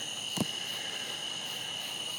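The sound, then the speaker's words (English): A steady nighttime chorus of tree frogs in the countryside around nine o'clock at night as it gets dark, a continuous high-pitched trilling drone, with one brief soft knock early on and no voices. “I just wanted to pause because of the tree frogs and how nice it sounds.”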